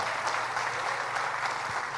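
An audience claps steadily for an elderly woman in her eighties, the church's first secretary, a dense, continuous patter of many hands at an even level throughout, with no voices standing out above it.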